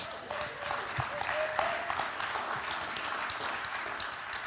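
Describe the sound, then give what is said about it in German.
A church audience applauding together during worship, a steady dense patter of many hands clapping at moderate volume, with a faint tone and some murmuring underneath. “Klatschen ist tatsächlich erlaubt in Gottes Gegenwart.”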